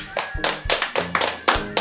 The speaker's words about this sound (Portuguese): Palmas para nós